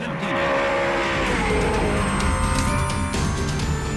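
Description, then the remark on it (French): Loud, continuous engine roar of the first race cars setting off onto the track in late morning at the second Cuban Grand Prix, with rising whines and layered revving sustained throughout and a faint tire squeal, no speech. “En fin de matinée, les premières voitures s'élancent sur la piste.”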